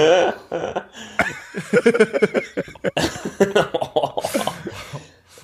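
A loud coughing fit: a rapid string of rough, harsh bursts with throaty vocal sounds in between, continuing in uneven spurts for several seconds.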